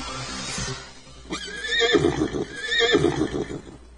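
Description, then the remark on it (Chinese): A horse neighs twice, each a loud, wavering whinny with bright harmonics that rises and then trails off, with soft rustling and thumps in between and no talking. “是马，Right。”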